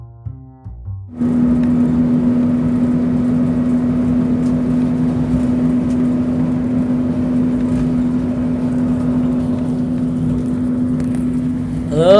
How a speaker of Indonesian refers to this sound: Yang kalian dengar barusan adalah suara mesin bis ya. Gue lagi perjalanan menuju ke Padang Niners.